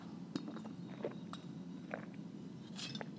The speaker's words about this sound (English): Hold on, I need a sip of water.